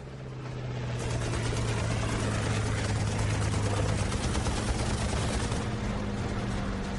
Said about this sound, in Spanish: El punto de mira se ha quemado y yo tengo al enemigo delante. Ahora es casi imposible disparar con precisión. Así que muevo el timón de un lado a otro y disparo casi sin apuntar.